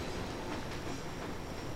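A southbound train, with a fiery red 1970s-type locomotive and train set, begins moving with two short jerks. It rumbles steadily with a dense, even clatter of rail noise, creaking and squealing, and no voices.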